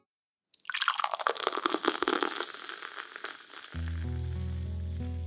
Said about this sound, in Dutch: Ah, het gebruis van koolzuur, het klinken van glazen en de subtiele aroma's van mout en hop